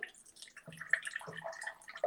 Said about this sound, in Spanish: Vamos a diluirlo con agua porque el alcohol por sí solo es muy abrasivo, como ya te había contado. Lo que si usas puro alcohol, te va a irritar la piel. Ok. Entonces lo que vamos a hacer es vertir un poquito de agua.